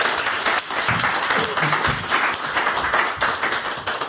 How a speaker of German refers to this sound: Vielen Dank für die Fotos, deine Zeit und ähm, einmal einen Applaus bitte für unseren Fotografen.